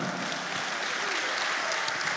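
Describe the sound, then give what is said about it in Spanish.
A crowd applauds the Lord steadily, a dense, even wash of many hands clapping at once with no pauses, sustained at a constant moderate loudness throughout. “Y dan un aplauso al Señor, hermano.”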